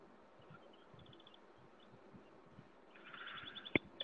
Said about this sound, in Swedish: Åh oh, jävlar ja, vilken liten fågel! Jag den lille.